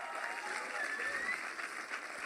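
A round of applause from a crowd, a dense steady patter of many hands clapping at an even loudness for a couple of seconds.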